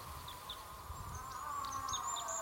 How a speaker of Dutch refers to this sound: Dat lijkt wel een, een, een eland. Een vrouwtje eland. Waarom maakt ze dit geluid? Ik denk om een mannetje te lokken. Is het dan paartijd voor ze? Ja, het is nu de paartijd.